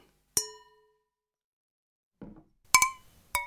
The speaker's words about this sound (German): Und ich möchte erstmal mit euch anstoßen auf diese Folge, denn ich habe heute den zweiten Teil meines äh, Geschenkeweins geöffnet. Und zwar von der gleichen Marke, glaube ich. Vogt Fehlinger trinke ich einen blauen Portugieser. Stößchen!